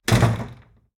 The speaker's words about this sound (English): You go through the door. door. It slams behind you.